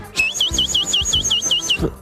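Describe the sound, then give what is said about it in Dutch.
A person imitates a house sparrow, making a rapid, even series of about nine high, sharp chirps. The chirps are fairly loud, with no talking. “Dit, klinkt aardig of als een mus, ja.”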